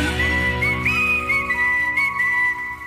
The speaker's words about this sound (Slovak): Už to vyzerá, že by sme si mohli naozaj iba pískať, Dokonca, kto nahral pískanie? Lebo to je dosť ťažké inak. Toto. No, tak toto nahralo asi 10 ľudí dokopy. To je zbor.